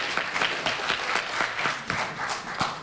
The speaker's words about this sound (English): They're clapping.